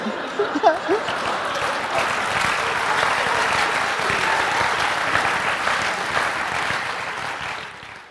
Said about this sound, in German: Warum echt klatscht ihr eigentlich, ihr Arschlöcher?